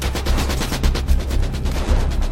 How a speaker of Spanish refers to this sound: Cuando ve caer a sus hombres, la LOG sabe que la compañía D no puede avanzar con el fuego de las ametralladoras alemanas atacando la carretera.